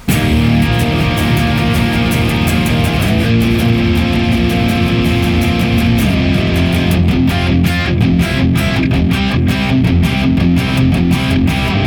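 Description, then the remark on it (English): Heavily distorted electric guitar, played through a Boss IR-200 running a stereo instance of the Thermi FA1 Uber 75, plays a dense, loud riff with sustained chords, then shifts into tight, rhythmic palm-muted chugs in the second half, with no voices. “Boss IR 200 running a stereo instance of the Thermi FA1 Uber 75, that sounds like this.”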